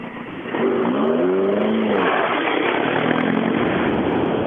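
A rally car roars past at speed, its engine note rising and falling as it approaches and recedes, loud and continuous with a broad rushing noise throughout.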